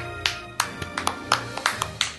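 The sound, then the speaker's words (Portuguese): A short burst of hand clapping from one or two hosts applauding the audience, about ten sharp, uneven claps, with no one talking over them. “Vocês estão dando palma pra mim ou pro pessoal?”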